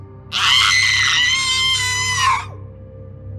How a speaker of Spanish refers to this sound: era inconfundible el sonido de las voces. Escuchamos llantos desgarradores y hasta un grito que provenía de la parte alta del edificio.